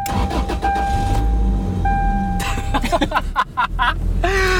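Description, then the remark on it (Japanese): A Toyota Tacoma's four-cylinder engine cranks briefly and catches, then settles into a steady idle with a few revs, loud and continuous with no talking. “トヨタ4発の 音がいいですねいやでもねもうエンジンブッシュとかはもう変えたんでねこう、エンジンかけてからの振動の少なさこれだけでも感動です”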